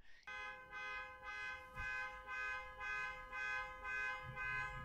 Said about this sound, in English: And as soon as I started recording, the kids across the street tried to get into their car and they set off the car alarm.